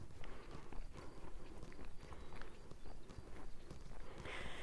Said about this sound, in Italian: Come senti anche io sto camminando.